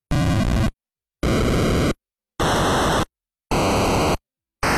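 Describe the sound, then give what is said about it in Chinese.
Loud, harsh bursts of white noise from the NES noise channel, the fourth of its sound channels, used for percussion in game music: four hissing blasts under a second each, separated by silent gaps, then a fifth starting. Later bursts carry a faint buzzy tone. No voices. “那么第四个通道呢是噪声通道。”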